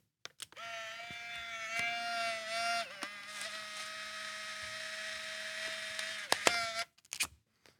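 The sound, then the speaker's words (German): A click from a Polaroid instant camera shutter as a photo is taken, then a steady, high-pitched mechanical whir as the photo is pushed out, ending with a few sharp clicks and handling noises. No one speaks. “habe ich mir gedacht, ich bringe einfach diese Polaroid-Kamera mit”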